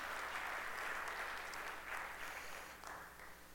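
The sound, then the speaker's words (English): A church audience applauds with steady, dense hand clapping for the Lord that holds at an even, fairly loud level, then gradually thins and softens toward the end. No one speaks over it. “And I believe the Lord deserves a hand clap for that.”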